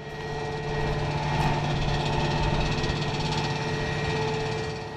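A steady, dull mechanical rumble of giant excavators digging huge holes in the ground deep in a forest drones on without pause, heavy engines humming at a constant pitch with no voices present.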